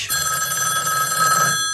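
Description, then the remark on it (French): A 1960s electromechanical telephone bell rings continuously, a loud metallic jangle with a bright rattling tone sustained throughout the short stretch, no voices present. “Et alors, vous m'avez trouvé une sonnerie de téléphone euh, absolument extraordinaire.”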